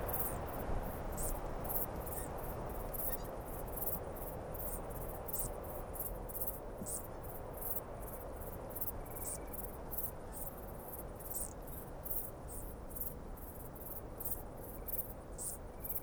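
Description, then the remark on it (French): Bush-crickets, the sumptuous bush-cricket and the grey bush-cricket, chirp in dense, repeated high-pitched bursts over a steady rushing evening wind through a Scots pine, with an Italian cricket in the distance. The insect calls are continuous throughout, with no voices present. “Je profite en fait euh, de ce vent dans, un pin sylvestre pour faire un mix direct, un mixage direct avec les decticènes, avec les, les sauterelles”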